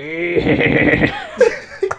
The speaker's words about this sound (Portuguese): porra, o cara viu um cavalo. Sons de cavalo. cavalo. Ponto MP3.